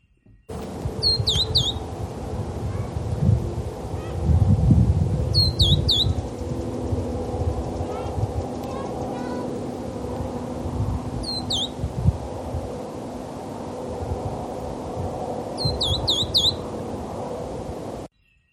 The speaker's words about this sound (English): Our third bird is the verdin. Take a moment to find this small bird in your ID guide while we play this.